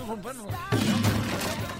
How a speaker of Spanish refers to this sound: ya se cayó la guitarra, cabrón, por andar.